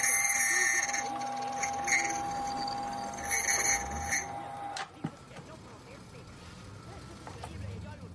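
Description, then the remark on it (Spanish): A small key-cutting machine whirs with a steady, shrill metallic whine for about five seconds, then cuts off sharply with a click, leaving only faint room noise. “Manipula una máquina de duplicar llaves.”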